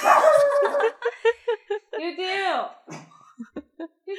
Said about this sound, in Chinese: 狗狗叫了， 稍等一下。 丢丢，大家没有听错，那只狗的名字就是叫丢丢。